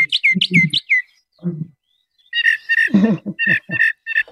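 A recorded northern mockingbird, a bird that imitates other birds, sings a string of bright, repeated chirping phrases in quick bursts, breaks off briefly, then resumes with varied, rapid notes. The song is clear, with no voices.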